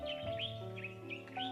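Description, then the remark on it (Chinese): Birds chirp in a quick series of high, twittering calls that repeat every few moments over a steady, sustained tonal hum of background music. “小鸟则灵巧地飞向天空。”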